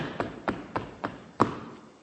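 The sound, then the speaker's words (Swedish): Feet stamp on a floor five times in a steady rhythm, each a dull thump, with the final stamp the loudest after a slightly longer pause. No one speaks. “Och så får man stampa med fötterna.”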